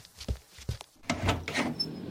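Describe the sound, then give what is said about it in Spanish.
A door is opened: two short wooden thumps come first, then a longer rattling scrape as it swings, with a brief high squeak near the end, moderately quiet. “abra la puerta que debe ser mi marido, ¿sí ve?”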